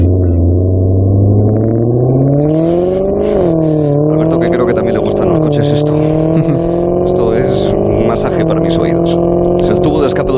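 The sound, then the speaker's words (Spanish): A Maserati sports car engine revs hard and accelerates as a traffic light is about to change, its harmonic drone climbing in pitch through several gear shifts, loud, with some voices faintly in the background. “Porque lo cierto es que ese acelerón se ha producido, se ha producido cuando estaba a punto de cambiar el color del semáforo en el que nos encontrábamos.”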